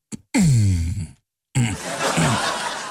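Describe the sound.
A man tries for a deep bass singing voice, producing two fairly loud low vocal phrases, the first a sustained, sliding hum and the second rougher and breathier.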